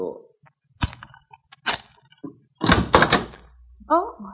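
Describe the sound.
A few sharp, spaced knocks on a wooden hotel room door, followed by a louder burst of thumping and rattling like the door being worked, then a brief voice at the end.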